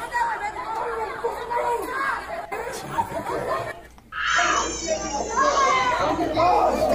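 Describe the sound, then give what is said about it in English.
A crowd of children plays noisily at a Chuck E. Cheese, with overlapping shrieks and chatter, then a louder, sustained high-pitched cry rises over the din partway through and carries on to the end. “kids crying. This one's got a crowd watching more than anticipating. But it's always a crowd.”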